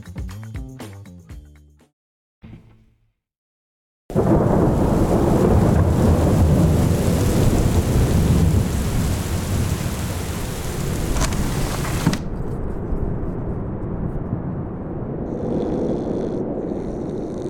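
A heavy thunderstorm bursts in after a brief lull, with loud, continuous rumbling thunder over steady pouring rain, then eases to a lower, ongoing downpour. No one speaks.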